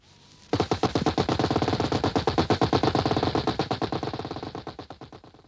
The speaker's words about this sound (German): Guck mal, Topper, da drüben bewegt sich was. Verdammt, ja. Maschinengewehre. Feuer.